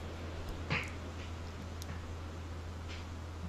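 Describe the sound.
A person briefly mimics a cat's meow, one short, fairly soft call early on, followed by quiet with a steady low hum in the background.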